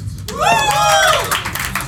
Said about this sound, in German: Applaus!